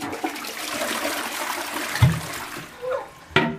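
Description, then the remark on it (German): Steady running water pours from a tap for several seconds while dishes are washed, with a few sharp clinks of crockery knocking together, without any voices. “Bist du jetzt auf der Scheisse gekommen, nee, nee, während der Podcast auf abgewaschen.”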